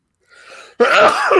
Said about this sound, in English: Excuse me. Bless you.